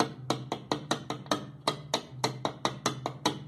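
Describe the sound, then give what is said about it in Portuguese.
A glass Coca-Cola bottle knocks sharply against a door about fourteen times in a quick, funk-like rhythm, used to build a 150 BPM funk beat, fairly loud, with a low steady hum running beneath parts of it. “Vou fazer um vídeo bem, bem explicadinho na moral aqui, a garrafa de Coca-Cola.”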